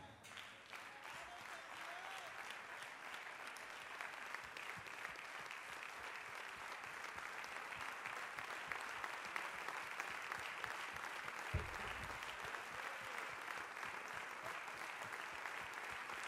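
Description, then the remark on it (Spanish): A standing audience applauds the Lord steadily for the whole stretch, a dense, loud wash of many hands clapping together without pause, the sound holding at a constant, sustained level throughout. “Vamos a estar de pie y le vamos a dar el mejor aplauso al Señor.”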